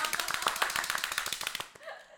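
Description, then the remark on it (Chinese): A short burst of applause: many rapid, sharp claps overlapping in an uneven patter, fairly steady in loudness, then trailing off abruptly near the end. “我们给他们的慢贤来鼓鼓掌。”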